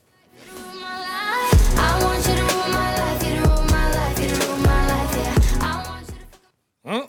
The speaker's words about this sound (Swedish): Och vi går vidare. Musik ska det bli. Lyssna noga nu.